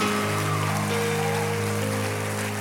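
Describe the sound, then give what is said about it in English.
An audience in a church applauds in a dense, steady wash of clapping that holds at an even loudness, with sustained musical tones humming underneath and no voices. “Come on, clap your hands. Let him know that you love him.”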